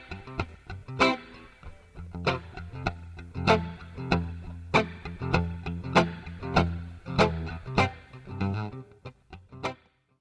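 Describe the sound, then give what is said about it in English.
An electric guitar plays alone through a Fender Twin Reverb amplifier with spring reverb, with a steady run of plucked chords and notes about once a second, each ringing out with a lingering, splashy tail. “He's playing through his Fender Twin Reverb amplifier.”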